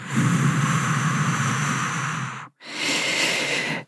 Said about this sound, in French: J'inspire sur quatre temps. J'ai bien gonflé mon diaphragme, j'ai bien gonflé mon ventre. Je bloque en huit temps. Et j'expire et j'expire tout.